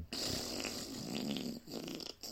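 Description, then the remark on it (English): A voice imitates a loud, long fart with a mouth raspberry, a sustained buzzy, sputtering rasp lasting about two seconds with a brief dip near the end, unaccompanied by talk. “and then I was on my own, literally the furthest corner away from everybody else, and I let out this really loud, long fart, like it's like”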